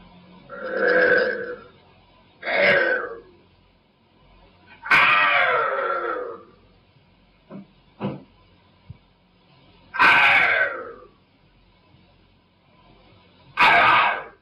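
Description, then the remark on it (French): Harsh, guttural voice sounds like growls and barks, reported around a girl in the Enfield poltergeist case in a family with no dog, come in about half a dozen loud bursts, spaced irregularly with quiet gaps and a few short clicks between them. “Il semble alors s'agir de grognements ou d'aboiements alors que la famille ne possède pas de chien.”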